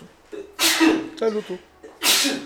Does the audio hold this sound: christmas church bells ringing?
no